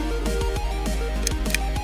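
A series of sharp mechanical clicks, several in under two seconds, each paired with a low descending hum as the lights power down, over a steady background drone.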